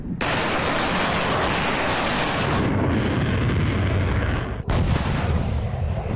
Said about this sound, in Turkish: Türk Silahlı Kuvvetleri İran kuzeyinde terör örgütü PKK'ya yönelik havadan ve karadan operasyon başlattı. Operasyona katılan yaklaşık 50 uçak belirlenen PKK hedeflerine bomba yağdırdı. İşte operasyondan ilk görüntüler.